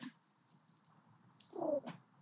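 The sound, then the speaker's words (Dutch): A small dog, Abby, lets out a single short, high whine near the end, fairly quiet, with no talking around it. “Je hoort misschien dat ik wel eh, Abby in mijn blikveld heb, mijn hondje.”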